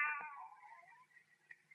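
A cat lets out a single long, drawn-out meow, loud at first, then trailing off into a thinner, wavering tail. No one speaks over it.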